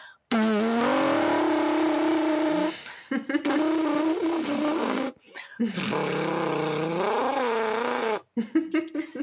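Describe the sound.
Buzzing lip vibrations, made by a voice, sounding like a motor revving. Three sustained buzzes with pitch that wobbles up and down, fairly loud, separated by short pauses. No talking.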